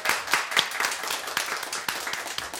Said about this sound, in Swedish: Jep, en applåd på det!